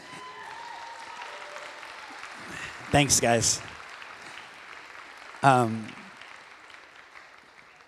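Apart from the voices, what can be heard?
audience applause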